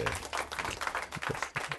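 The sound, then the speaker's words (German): A requested 'Western' applause after a ranked countdown: a dense, steady wash of many hands clapping that fills nearly two seconds at an even volume, with a few short vocal bursts mixed in near the end. “Und einen Western-Applaus, bitte.”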